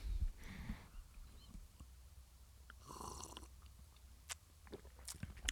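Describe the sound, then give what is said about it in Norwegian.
Wet mouth sounds of someone slurping a first taste of wine from a glass, with a short airy slurp early on and a longer bubbling one midway, followed by faint smacks and clicks. No one speaks. “at du slurpa, du.”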